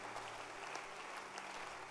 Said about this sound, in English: Let's clap our hands for Reverend Frank from Achimota.